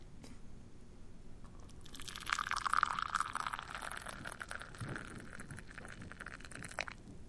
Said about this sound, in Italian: è il suono del caffè versato nella tazza. Senti, perché dai suoni dei diversi liquidi li riconosci. La cioccolata fa un altro suono, per esempio, dal caffè, o l'acqua. Questo è il caffè dalla fiammetta.